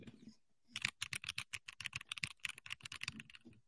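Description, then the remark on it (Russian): Rapid typing on the speaker's own Milgik mechanical keyboard, a dense run of crisp clacky keystrokes at a quick, slightly uneven pace, clear with no voices. “Не-не, ну, мне кажется, смотри, сейчас, сейчас свою дам послушать.”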